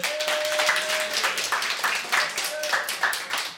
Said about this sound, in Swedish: En applåd